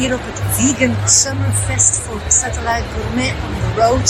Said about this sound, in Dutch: Je hoort het wat eh, geluid op de achtergrond, maar er is hier dan ook heel veel volk aanwezig. Een heel leuk festival.